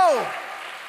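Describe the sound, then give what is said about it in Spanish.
An audience applauding loudly for the Lord, a steady wash of many hands clapping that holds at an even level, opened by a brief voice sliding downward in pitch. “Dele fuerte ese aplauso al Señor.”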